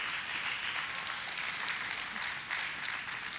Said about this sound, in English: Well, I'm thankful for that applause. Praise the Lord for that.